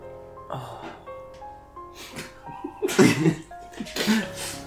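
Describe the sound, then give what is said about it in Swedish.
A voice imitates someone vomiting with a series of harsh, gagging retches in several bursts, the loudest and roughest coming in the second half. “Kastar upp.”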